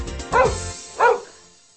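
Two sharp dog barks, about half a second apart, loud, with harmonic yelps standing out against a quiet background and no talking.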